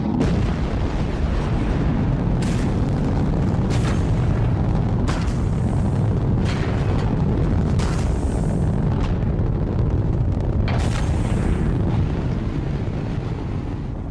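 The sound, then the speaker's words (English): A deep, steady rocket roar as the rocket lifts from the launch pad, rumbling continuously at high volume, with sharp crackling bursts breaking through every second or so; no voices are present. “There was a rumbling, which grew into a great big roaring. And the rocket began to lift from the launch pad.”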